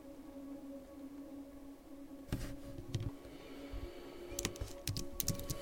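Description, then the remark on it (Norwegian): Irregular clicks of typing on a computer keyboard begin after a couple of quiet seconds, sparse at first, then quicker bursts of keystrokes over a low, steady electrical hum. “Nå har tastaturet mitt skiftet språk.”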